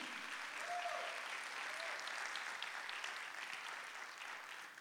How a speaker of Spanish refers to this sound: ¿Dónde está la gente que ama a Jesús en este lugar? Den un aplauso a Jesús si usted lo ama.